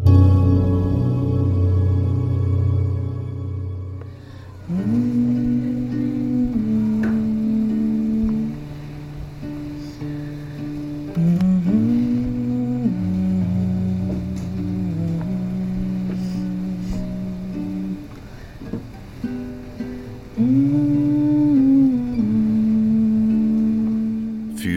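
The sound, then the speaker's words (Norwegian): A voice hums a rock classic during music therapy in a hospital intensive care unit, in several phrases of sustained, low-to-mid pitched notes with short pauses between them, following a few seconds of steady low mechanical drone at the start. “Dette her er lyden av musikkterapi.”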